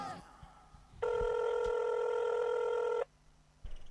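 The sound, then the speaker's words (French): A telephone rings once with a steady, buzzing electronic tone that holds for about two seconds, loud, surrounded by faint background noise and no speech; it is a rapper's phone call to his father on the Rap Academy. “chaque participant et concurrent a le droit de passer un coup de fil à la famille”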